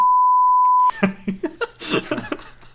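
A single loud, steady censor bleep tone holds for nearly a second, then cuts off abruptly as people start talking and laughing.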